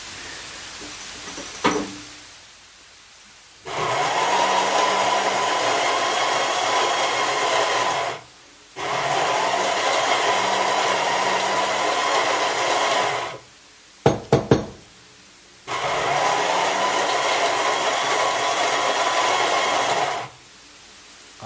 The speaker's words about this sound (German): Ah, jetzt male ich erstmal den Kaffee.